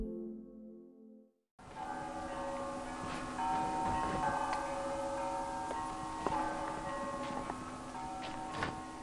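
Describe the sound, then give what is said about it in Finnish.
The bells of Valamo ring out continuously after a brief quiet opening, with repeated overlapping strikes and long sustained tones blending into a steady, resonant peal, with no one speaking. “Häiritseekö sua noi kellot, kun ne rupesivat soimaan?”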